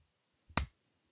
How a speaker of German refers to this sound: Ich brauche Ja. einen Klatscher. Und dann passiert was? Mach einfach mal, ohne dass du redest, einen Klatscher.